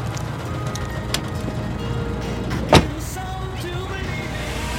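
People climbing into a car: a low, steady engine rumble runs throughout, with a light click early on and one sharp door thump near the middle.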